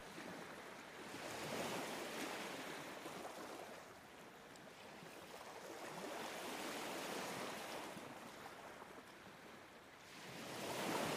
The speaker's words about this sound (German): Das Meeresrauschen beruhigt deinen Geist und deinen Körper.